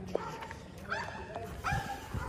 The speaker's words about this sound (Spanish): Cada vez yo siento que aquí, yo voy a evitar este camino, ladran más perros que cada vez más, ¿verdad?